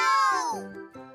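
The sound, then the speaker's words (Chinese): A high, childlike voice imitates a cat's meow: one drawn-out, downward-sliding mew, followed by a short, softer vocal sound. “咪好，咪好，咪好，喵！”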